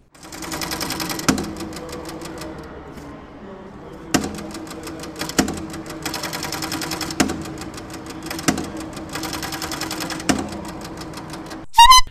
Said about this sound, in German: So, und hier noch so, und jetzt schmeiße ich mal den Fluxkompensator an.